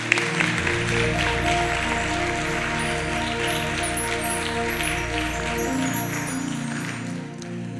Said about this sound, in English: If you'll agree with me, clap your hands and give him praise if you'll agree with me.